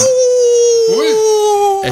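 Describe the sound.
A wolf howl on the radio show Vuelve Vinilo: one long, steady, mid-pitched tone that sinks slightly as it holds, with a short rising-and-falling cry breaking over it partway through and another brief burst at the end.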